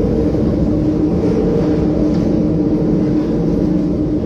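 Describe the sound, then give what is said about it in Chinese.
Loud, steady rumbling roar inside a moving Line 10 subway train, as noisy as a train, a dense low drone that holds at the same level throughout with no voices or breaks. “十号线特别吵，怎么跟火车一样吵啊？”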